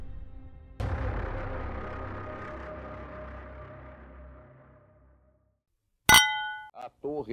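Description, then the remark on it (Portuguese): A bright clang rings out and slowly fades over several seconds. After a pause comes a sharp glassy clink of glasses in a toast, with a clear ringing tone, and a brief voice follows. “Brinde história? Tchim, tchim. Tchim, tchim.”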